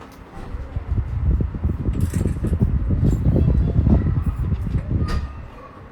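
An electric fan whirs with a steady, rumbling, breathy, wind-like noise, then is switched off and winds down abruptly in the last half second.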